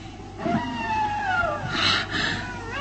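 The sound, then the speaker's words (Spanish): An eerie, wolf-like howl: one long, wavering wail that glides slowly downward in pitch, then a harsh, breathy burst of noise. No one speaks. “Ahí está otra vez ese horrible aullido.”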